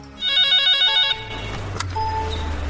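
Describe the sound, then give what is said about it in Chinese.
A telephone rings with a bright, repeating electronic trill for about a second, then cuts off, leaving a low background hum and a few faint clicks and tones; an emergency call received by Macheng police in the early morning of 15 February 2021. “呃，让我们从二零二一年二月十五号凌晨麻城警方接到的一个报警电话开始说起。”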